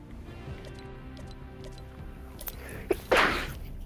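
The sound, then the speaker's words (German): A single sharp sneeze bursts out near the end, a sudden loud noisy blast that trails off briefly, preceded by a quick inhaled catch, over a low steady background hum. “Gesundheit. Danke.”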